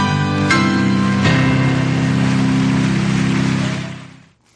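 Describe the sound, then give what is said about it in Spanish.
A motorcycle engine starts and runs loud with a steady droning hum, two sharp revving bursts early on, then the sound cuts away at the end. No one speaks. “yo ya he arrancar moto, ¿para dónde ponemos rumbo?”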